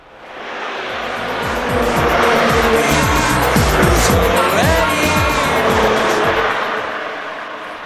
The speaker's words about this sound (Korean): 자, 옆에 저기 차가 지나갑니다. 곧 음악 소리 들릴 거예요. 옆차에서 어떤 노래 듣고 있을까요? 들어보세요.